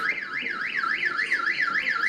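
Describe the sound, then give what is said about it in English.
An electronic alarm wails continuously, its pitch sweeping rapidly up and down in a steady repeating warble, loud with no voices present. “Okay, obviously this one already passed because the alarms are going off.”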